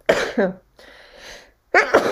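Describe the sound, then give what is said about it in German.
A person sneezes three times in quick succession, loud, each sneeze a sharp burst with a brief breathy gap between them. “Ah, du bist auch ein dreimal Nies-Typ.”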